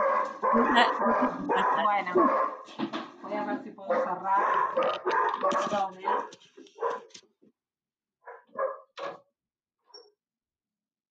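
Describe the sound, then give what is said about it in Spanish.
Small dogs bark and yip excitedly and loudly over a person talking, followed by a few short, sharp barks once the talking stops. “Ahí la escucho a las, a las chiquitas.”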